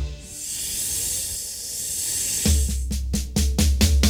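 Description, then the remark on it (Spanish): A snake's long, steady hiss fills the first half, then continues as short rhythmic hissing bursts over a thumping beat. No one speaks. “Si tú sabes cómo hace la serpiente, vamos a escucharla tú y yo.”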